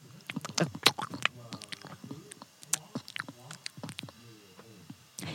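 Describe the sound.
A voice imitates wet, smacking chewing noises, a rapid series of clicks and squelchy mouth sounds with brief breathy pauses, fairly quiet and continuous for several seconds.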